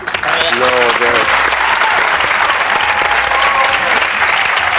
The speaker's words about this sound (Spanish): Bueno, eh, Querido Manolo Solo, gracias oh. por venir, un aplauso.